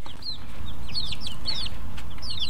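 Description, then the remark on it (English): Young chicks, raised indoors in spring, chirp and peep in quick, high-pitched bursts, several overlapping calls, over a steady low rumble of background noise with no one talking. “But now it's spring and we have some chicks.”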